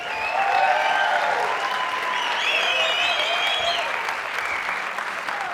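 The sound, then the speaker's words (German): Steady, dense applause from a large audience at a stage event as a guest is welcomed onto the stage, loud and continuous, with a few faint whoops or cheers rising over the clapping. “ihr könntet tendenziell schon fast weitermachen mit dem Klatschen”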